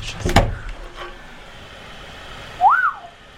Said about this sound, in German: Hast du gerade das Rauschen gehört, wenn ich mir das ah. Mikrofon anmache? Das ist mein MacBook.